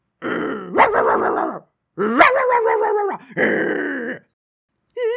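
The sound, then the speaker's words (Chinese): A pack of stray dogs running up by a large pond barks and snarls in three long, loud, overlapping bursts, harsh and rising in pitch, with a short fresh outburst starting at the very end. No one speaks. “你们看，这里好多好多的野狗都跑过来了耶！”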